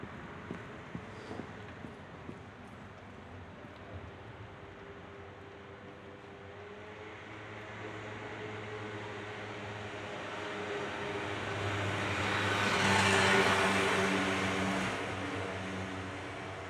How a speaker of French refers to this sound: À la place, je vais essayer d'écouter les sons de ma rue. Et on verra ce que ça donne.